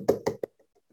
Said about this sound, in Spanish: Es Dios que está golpeando su puerta y diciendo,